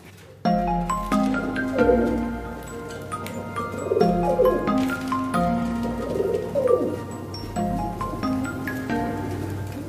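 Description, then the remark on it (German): Budapest pigeons coo and murmur in a steady overlapping chorus inside an aviary, with soft rustling and a faint low hum underneath. “Also wir knien inzwischen vor einer Voliere, in der Budapester Tauben zu sehen sind.”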